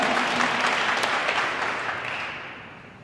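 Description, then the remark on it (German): A church audience applauds for the Lord as a sign of approval, a dense, steady wash of many hands clapping that holds for a few seconds and then slowly tapers off, with no voices over it. “Wer das gut findet, darf dem Herrn mal einen Applaus geben als Zeichen.”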